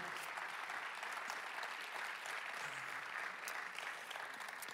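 An audience applauds steadily, a dense wash of many hands clapping at an even level throughout, with no voices standing out.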